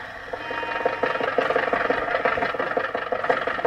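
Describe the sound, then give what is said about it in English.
A car engine hums steadily with a rapid, rattling mechanical pulse, moderately loud and continuous, as Rochester drives Jack Benny to the studio, with no voices over it. “At the moment, Rochester is driving Jack to the studio.”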